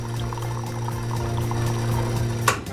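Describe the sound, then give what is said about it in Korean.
Coffee pours into cups in a steady, continuous stream under a low constant hum, with a brief brighter splash near the end, as three coffees are sent out by a radio show. Nobody speaks. “텐디가 바로 커피 세 잔 보내드려요.”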